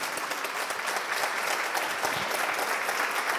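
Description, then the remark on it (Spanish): A crowd claps steadily throughout, a dense, continuous patter of many hands filling the space at a fairly loud, even level with no speech over it. “Un aplauso.”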